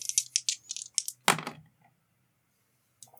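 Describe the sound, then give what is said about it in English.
Two dice clatter and tumble into a dice tray: a quick run of bright, hard clicks, then a louder knock as they settle, silence, and one last faint tap. One die shows a six; the other ends up in the corner of the tray. Fairly quiet, no voices. “Uh, one of those is a six. The other one ended up in like the corner of the dice tray.”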